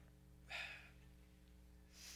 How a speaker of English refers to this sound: Oh, it's been an emotional morning already. Come on. Whew. Now I'm sniffling.